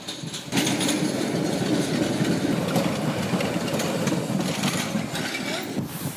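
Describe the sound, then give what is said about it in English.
A train rumbles past, a loud, steady roar with rhythmic clattering of wheels on rails that holds for several seconds before easing slightly at the end. “Here's the train.”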